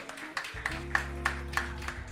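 Steady rhythmic hand clapping after a song is played, a sharp clap roughly every third of a second, over a constant low hum that starts partway through. No one speaks.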